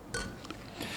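Two bright clinks of beer glasses striking together as men toast at the start of a broadcast, a moment apart and ringing briefly, with a soft rustle between them.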